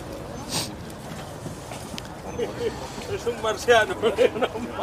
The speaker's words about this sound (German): So, jetzt fängt hier der Markt an.